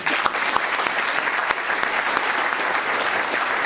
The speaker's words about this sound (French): je voudrais aussi remercier toute l'équipe de RPI Gallois parce que c'est grâce aux bénévoles euh, que cette euh, journée est possible, que ces journées sont possibles. Donc euh, un applaudissement pour eux, s'il vous plaît.